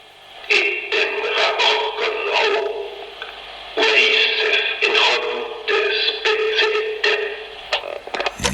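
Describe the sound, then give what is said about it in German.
Heavy, steady static hiss from an old tape recording being played back after some noise filtering, with garbled, indistinct voice-like bursts rising and falling through the noise for several seconds. “Ja, es rauscht noch immer sehr stark, obwohl ich schon einiges Rauschen herausgefiltert habe.”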